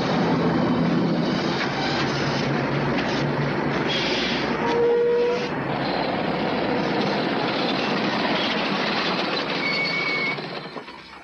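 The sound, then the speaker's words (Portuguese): A loud, steady engine roar from a pickup truck, a dense rumbling drone with rattling road noise that holds constant throughout and eases off slightly at the very end, with no voices. “Não dá mais para continuar com essa picape. Está fazendo muito barulho.”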